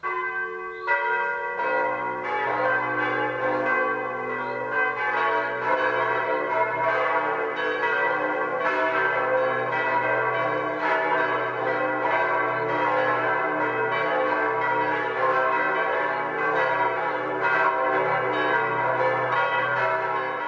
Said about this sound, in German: Es ist 12 Uhr. Das Mittagsläuten kommt heute aus der oberbayerischen Gemeinde Übersee.